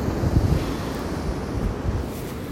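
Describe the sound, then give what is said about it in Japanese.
Steady roar of ocean surf breaking, mixed with gusty wind buffeting the microphone, a continuous wash of noise with low rumbling swells and no voices; several surfers are out on the waves on a cold day. “波は見てて飽きない”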